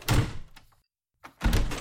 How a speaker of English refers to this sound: Okay, okay, just close the door.